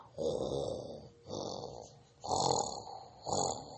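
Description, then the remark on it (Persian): A very large bear sleeping in the hollow of an old tree stump snores in four loud, rumbling, growly breaths, each about a second long with short pauses between, steady with no talking. “حیوانا با ترس و لرز به طرف صدا رفتند خرس خیلی بزرگی رو دیدن که در سوراخ کنده پیر خوابیده بود کنده میدونید یعنی چی کنده تنه درخت بزرگی که شکسته افتاده زمین یا روی درخت تنه درخت بزرگ رو میگن صدای خورخورش همه جا رو برداشته بود”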